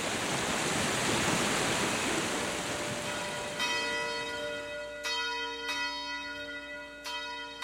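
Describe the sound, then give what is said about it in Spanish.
The bell in the clock tower beside the town hall of Pasarón rings out with several resonant strikes and long humming overtones, following a steady rush of flowing water that gradually fades beneath the ringing. “Anexo al edificio del ayuntamiento destaca la torre, donde se ubican una campana y un reloj, cuyo antiguo mecanismo era especialmente curioso.”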